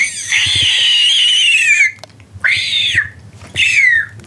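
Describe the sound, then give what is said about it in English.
A voice mimics a bird of prey with three loud, shrill screeches: one long drawn-out cry followed by two shorter ones, each sliding down slightly at the end, with no talking. “I will not ask you to sing, but I think you do a pretty good impression of uh, Bird of Prey.”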